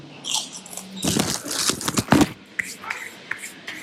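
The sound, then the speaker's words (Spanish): Crisp cracking and crunching as cookies are snapped open, followed by a sharp bite and brief crunchy chewing; a few scattered quieter crackles trail off afterward. “De pronto se escucha unas galletas que se truenan, que se abren. Y se escucha un mordisco.”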